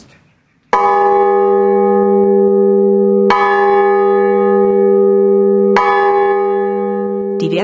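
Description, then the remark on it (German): A large bronze bell is struck three times at slow, even intervals to test how long it rings out, each loud clang blooming into a rich, sustained hum that keeps ringing and overlaps the next strike. “Und das macht man, indem man die Glocke dreimal anschlägt und dann wartet, bis die Zeit rum ist, bis sie dann wieder still ist.”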